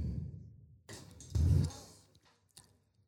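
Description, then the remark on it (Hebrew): Someone drinking water: a few soft gulps and swallows with a breathy rustle, then a small click as the drink is set down, no talking. “אני צריכה רגע לשתות יאללה, מים”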